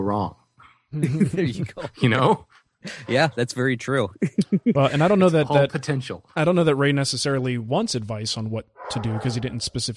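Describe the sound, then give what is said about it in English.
Dogs bark in the background, muffled and intermittent, beneath a man's steady conversational speech punctuated by brief laughter. “Excuse my dogs in the background.”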